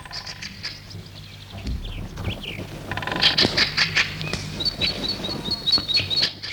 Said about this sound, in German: Schön ist es hier im Wald. Psst, du vertreibst ja die Vögel.